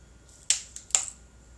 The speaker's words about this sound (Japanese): 炭酸水を開けるねえこれ大丈夫かな私買ってくると買ってくるときあのよくやっちゃうんだよな振っちゃうの怖い怖い怖い怖いみんなもシュワーってなるのを聞いて